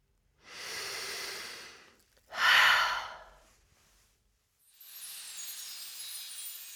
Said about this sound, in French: Comment vous sentez-vous Qu'est-ce qui est différent Vous venez pour la première fois de prendre conscience de votre respiration et pour la première fois peut-être de commencer à vouloir la maîtriser.